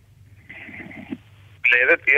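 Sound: muffled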